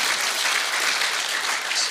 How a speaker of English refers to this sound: That's a great takeaway and um, deserves a clap.